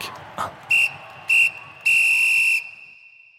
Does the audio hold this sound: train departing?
no